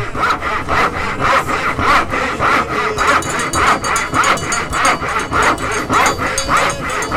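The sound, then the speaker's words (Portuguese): A handsaw rasps back and forth through the horn of a bull named Temar in quick, steady strokes, about two per second, loud throughout with no one speaking. “Então vamos passar o serrote no chifre de Temar.”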